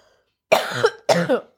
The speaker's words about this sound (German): Sorry, ich muss nochmal husten.